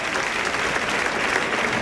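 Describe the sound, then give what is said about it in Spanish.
A large bullring crowd gives a sustained ovation for the bullfighter Fortes, dense, steady clapping filling the whole stretch at an even, fairly loud level with no voices standing out. “pues premio de ovación para Fortes.”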